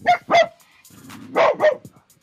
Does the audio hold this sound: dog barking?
yes